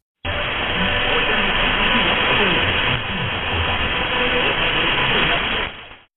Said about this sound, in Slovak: Ale nikto netušil, či je to naozaj poplach, alebo len pokazený megafón.